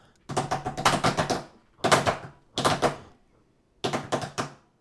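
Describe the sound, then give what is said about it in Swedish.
Quick, thumping footsteps come in four short bursts separated by brief pauses, like the neighbours' children running around on a floor, each burst a rapid patter of heavy steps. “Nej, du ska lyssna på det här, för att det här, det, det låter inte seriöst inte som levande barn utan det låter som spökbarn som springer omkring så här.”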